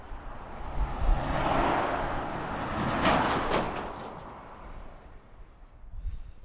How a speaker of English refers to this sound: So a bit further away, just past Brayford Leisure Caravan Centre now, and uh, a bit further away from the bypass. Like you can still hear, I'm sure, I'm sure you still hear it for miles around here. Uh, a bit more peace and quiet